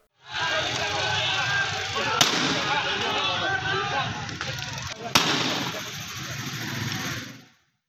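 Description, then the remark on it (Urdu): Two sharp gunshots crack out about three seconds apart as police in Pakistan fire into the air to disperse attackers, over a loud, continuous roar of a crowd, with voices shouting and murmuring throughout. “آخرکار پولیس نے مداخلت کی اور مسلم علماء اور عمائدین کی مدد سے حملہ آوروں کو منتشر کرنے سے پہلے ہوائی فائرنگ کی اور لاٹھی چارج کیا”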